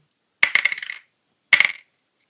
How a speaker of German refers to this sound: Warte, ich, ich würfel und dann klingt so. Pass auf, ich würfel, es klingt dann so.